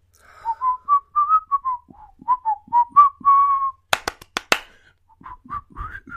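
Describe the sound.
The theme tune of the TV show Friends whistled as a lively string of quick, bright notes, interrupted by four sharp claps in rhythm before the whistling picks up again briefly.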